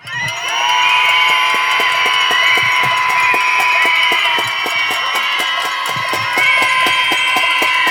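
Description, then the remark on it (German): A crowd of protesters gathered to commemorate murdered women screams together in one loud, sustained roar of many high voices, holding steady for several seconds with scattered sharp claps or bangs punctuating it. “Das ist zum Schreien. Jetzt.”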